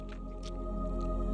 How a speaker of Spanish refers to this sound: Déjame tomarme un poquito de café. refrescarme la garganta para este tema.